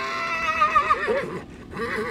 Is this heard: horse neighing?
yes